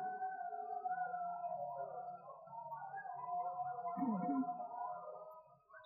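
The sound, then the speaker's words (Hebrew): Dogs howl back at jackals in long, wavering, overlapping tones that rise and fall continuously for several seconds, a steady mournful chorus at moderate loudness with no talking. “שרים בחזרה על התנים שבחוץ או שבפנים.”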